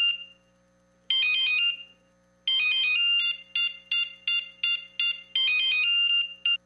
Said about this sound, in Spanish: Si pensaste que sonaba tu celular, es momento de cambiarte a un smartphone.